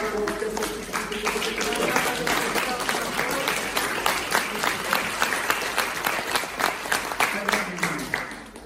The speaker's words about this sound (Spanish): Quisiera interpretar ese aplauso. Ese aplauso fue para el Señor. Fue para mi mamá.